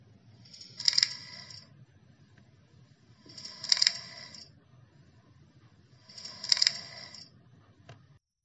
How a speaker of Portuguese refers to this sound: E quem iria imaginar que até as borboletas com quem a gente falou no início faziam um som. Escuta só.